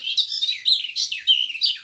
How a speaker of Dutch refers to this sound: En op de camping, vlakbij het Slotenmeer, werd ik verrast door het vogeltje dat je nu hoort. Ik dacht dat er wel tien verschillende zangvogeltjes in de bosjes zaten. Nooit geweten dat een tuinfluiter zoveel verschillende melodietjes kon zingen.